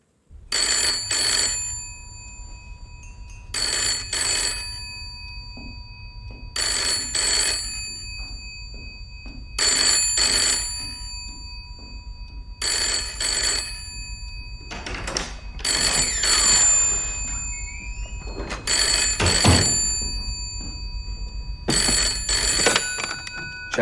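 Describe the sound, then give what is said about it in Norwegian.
A telephone bell rings in repeated double bursts, about eight rings with steady pauses between them, loud against a low background hum, with no one talking, at a small local police station in Chelmsford, Essex, England, on the night of 7 August 1985. “august i 1985 så er vi på den lille lokale politistasjonen i Chelmsford i Essex i England, og der begynner telefonen å ringe.”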